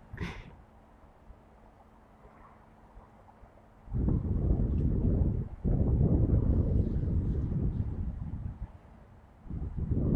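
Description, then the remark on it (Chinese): Strong wind roars in loud, rumbling gusts in Beijing, gusting to about force 7. A quieter stretch comes at the start, then heavy buffeting bursts briefly drop and surge again. No one speaks. “今天北京风很大，阵风7级左右，体感温度很冷。”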